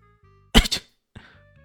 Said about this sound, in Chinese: 李炫无由来的打了个喷嚏，他揉了揉鼻子，那喃道：“哎，奇怪了，是谁在提起我呢？”